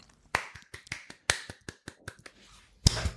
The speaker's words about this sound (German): Slow Clap. ja, fühl dich geklatscht. Fühl dich beklatscht.